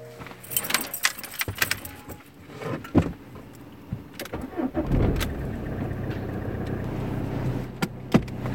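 Keys jingle and clink in a burst of handling sounds as someone takes the car to go grocery shopping, a door thuds, then the car engine cranks and settles into a steady idle rumble.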